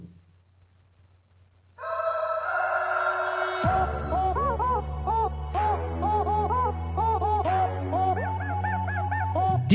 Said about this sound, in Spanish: Mientras encuentre el otro, porque este está muy poco práctico, les voy a presentar también a El Vale, el gallo con autotune